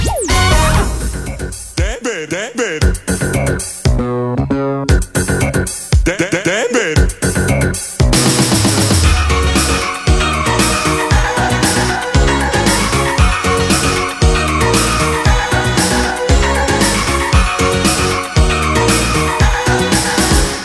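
A cartoon theme song intro opens with a few seconds of playful, sliding sound effects, then settles into a loud, bouncy, steady-beat pop tune with full band backing.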